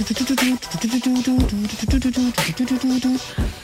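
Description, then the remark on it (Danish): A rhythmic gated synth: short, choppy bursts of a steady low-mid tone stutter in a repeating pattern, punctuated by sharp percussive hits, loud and without talking. “Som jeg nu godt ved er en eller anden form for sådan synthgate, øh, rytmisk synthgate.”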